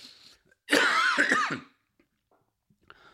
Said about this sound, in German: Boah, hey, Bro, kennst du das, wenn man so hustet und dann kommt doch dieser Schleim raus? Das wollte ich noch ganz kurz sagen. Ja. Und es kommt doch immer so viel Schleim raus.